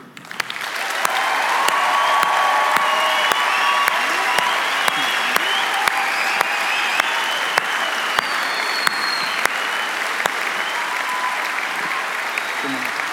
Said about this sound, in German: Und ich würde mir wünschen, dass wir einfach nochmal Gott ganz besonders begrüßen, ihm einfach einen großen Applaus geben.